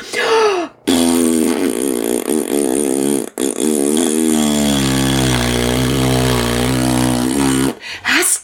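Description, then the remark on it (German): A long, loud, buzzing fart sound effect stretches for about seven seconds, its pitch wobbling and sputtering like a rocket, with short blasts of noise just before and after. “Und dann hat Frau Quatscheviel noch dazu für zwei Sekunden die Luft angehalten und den Pups angehalten.”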